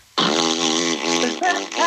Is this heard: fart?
yes